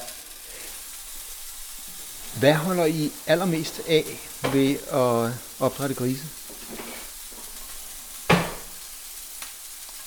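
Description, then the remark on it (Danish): Pork fat sizzles steadily in a frying pan as the fat edge of the meat is fried first, stood up on its edge, a continuous crackling hiss running throughout, while a person speaks over it for a few seconds and a sharp clatter sounds near the end. “Yes, og du steger lige fedtkanten først, kan jeg se.”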